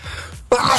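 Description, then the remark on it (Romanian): A single close, loud sneeze: a short breathy intake, a brief pause, then a sharp explosive burst with a voiced edge. “Sănătate”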